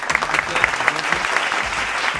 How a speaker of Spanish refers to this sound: Ha llegado el gran momento de este programa con ustedes. Con un gran y fuerte aplauso.